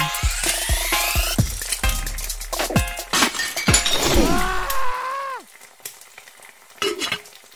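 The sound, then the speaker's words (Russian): Hash browns fry in a pan with a loud, steady sizzle full of sharp crackles and clinks. It briefly swells with a sliding whine, then fades to a faint hiss broken by a few pops. “Пока жарится хэш-браун...”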